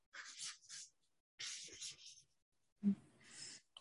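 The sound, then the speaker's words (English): Scratching of a pen on a paper pad, coming in three quick bursts of scribbling separated by short pauses, soft and dry. “I like using your whole pad of paper on this.”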